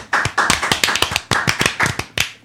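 A short burst of applause at the end of a game: a few people clapping briskly in quick, slightly uneven claps for about two seconds, fairly loud and with no voices over it.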